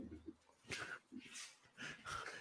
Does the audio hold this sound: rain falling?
no